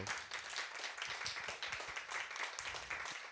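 Sustained applause from an audience for two women, a dense crackle of many hands clapping steadily at a fairly even level throughout, with no voices standing out above it.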